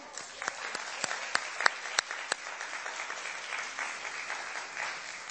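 An audience applauds steadily, a dense wash of clapping with a few sharp, louder claps standing out early before the applause settles into an even, moderate level.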